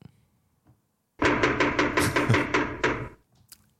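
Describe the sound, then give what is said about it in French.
A loud, rapid series of about nine knocks on a door, sharp woody raps in a fairly steady rhythm over two seconds, with no talking around them. “C'est les auditeurs qui tapent à la porte parce que, en début d'épisode, tu nous avais vendu un truc.”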